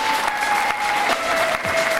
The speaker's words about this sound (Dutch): Graag een hard applaus voor eh,